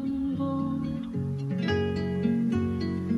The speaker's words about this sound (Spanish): qué bello ese tema de … de … allá atrás